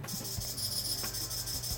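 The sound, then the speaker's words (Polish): A water level alarm buzzer sounds when water in a glass touches its wires and closes the circuit. It gives a steady, shrill, high-pitched electronic tone that holds without a break, over a low background hum, with no one talking. “Jeżeli woda dotknie tych drucików, no to jest. Zamyka się obwód sygnał...”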